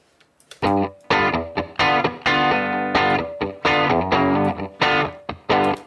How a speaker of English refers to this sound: So I'm going to put this into the uh, reverb, the room verb, and check out what this sounds like.